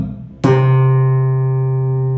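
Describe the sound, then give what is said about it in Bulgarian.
A single percussive slap on a bass guitar string, played with the slap-and-pull technique (striking the string with a finger and pulling it with a finger): a sharp, bright attack after a brief quiet lead-in, then a low, full note that rings on steadily and fades only slightly. “Удар върху струната с пръста и дърпане на струната с пръста.”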